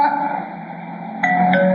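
A house doorbell chime rings, its sustained tones shifting pitch partway through in a ding-dong pattern. Clear, with no voices.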